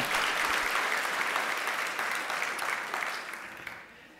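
A crowd applauds steadily with dense, overlapping hand claps that hold a fairly even loudness, then thin out and fade near the end.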